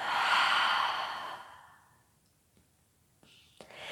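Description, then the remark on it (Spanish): A long, breathy exhale through the mouth during a breathing exercise, fairly loud, that gradually trails off into quiet, followed by a few faint soft clicks. “Exhalas por tu boca y sueltas.”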